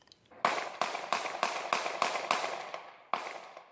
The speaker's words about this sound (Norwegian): tok en forbipasserende denne mobilvideoen av Slegger, som avfyrer åtte skudd mot ryggen til 50 år gamle Walter Scott, mens han flykter etter å ha blitt stoppet for en trafikkforseelse. Fem av skuddene treffer.